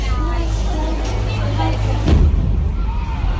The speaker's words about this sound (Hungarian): Nem sokkal később öngyilkos merénylő azonban megölt 22 embert közöttük 7 gyermeket. Itt hallják a robbanást.